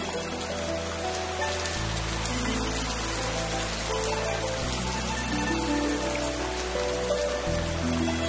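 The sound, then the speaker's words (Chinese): Heavy rain pours down in a steady, dense hiss that never lets up, with soft low musical tones that change pitch every few seconds beneath it. No one speaks. “前一秒还火红的太阳当空照，下一秒就地上雷鸣，大雨哗哗的下，你看到吗？”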